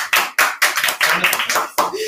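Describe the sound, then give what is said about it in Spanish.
A quick run of sharp, bright hand claps, about eight in two seconds, in a slightly uneven rhythm, with voices mixed in underneath, in a radio studio. “No aplaudas.”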